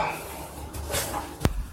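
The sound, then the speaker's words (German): A small door is opened, with a brief scraping rustle followed by a single sharp click or knock, against a quiet indoor background. “Mach mal die Tür auf.”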